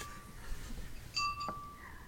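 A glass being clinked, giving a faint, bright ringing tone that hangs for about half a second over a quiet room background, with no one talking.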